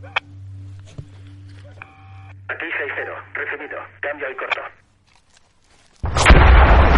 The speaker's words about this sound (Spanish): ¡Ponte a cubierto! De repente todos los soldados se ponen a cubierto al escuchar una explosión.